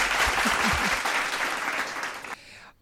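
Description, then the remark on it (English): A brief burst of audience applause, a dense wash of many hands clapping that holds steady and then thins out, ending abruptly with a few stray claps fading into quiet. “Okay, let's uh, give okay, one applause for subconscious thinking”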